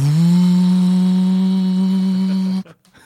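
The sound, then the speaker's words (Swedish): A voice imitates the fans of a 2010 MacBook laptop spinning up during a lecture: a loud, steady buzzing hum that rises slightly in pitch at the start, holds for about two and a half seconds, then stops abruptly. “Det är samma sak som folk som har eh, Macbooks från 2010 med på föreläsningen där fläktarna drar igång”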